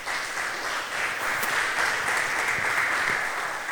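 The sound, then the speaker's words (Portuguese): An audience applauds the Lord, a dense, steady wash of many hands clapping at once, sustained and fairly loud throughout with no voices standing out. “Vamos aplaudir o Senhor? Aplausos”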